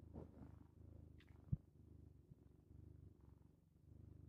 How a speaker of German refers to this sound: Ich habe hier die Katze auf dem Arm, ob man das Schnurren wohl in den Podcast mitnimmt.